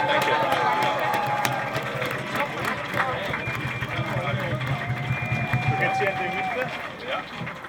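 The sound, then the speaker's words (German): A crowd at a cross-party rally organized by the Greens applauds the Vienna state student representation (Landesschülerinnenvertretung Wien) steadily throughout, a dense, even wash of clapping with some cheers and raised voices mixed in, staying loud from start to finish. “So, großen Applaus nochmal für die Landesschülerinnenvertretung Wien.”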